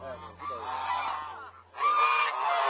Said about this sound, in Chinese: 阿婆，这鹅是你养的？ 哎， 这是你养的？ 哦。 养了多少只啊？家里？ 呃，八九个。 八只鹅。 哦。 这鹅然后去卖是吧？最后 哎， 长大了去卖。